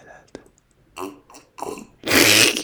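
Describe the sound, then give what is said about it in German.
A few soft slurping sips and gulps of wine, then an abrupt, loud spluttering cough as someone chokes on the wine, harsh and sustained through the end. “Ich trinke jetzt einen Schluck Wein.”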